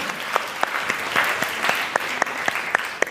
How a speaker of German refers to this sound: Jetzt Ganz kurzen Applaus für unseren mutigen Mann.